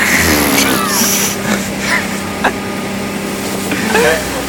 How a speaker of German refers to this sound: Heute sind wir mal wieder draußen, aber nicht im Moor, sondern ihr hört es vielleicht schon. Wir sind heute mal auf dem Boot unterwegs. Wir sind mitten auf der Hochsee. Und wir hoffen, dass der Wind jetzt nicht äh, irgendwie nervig wird oder so.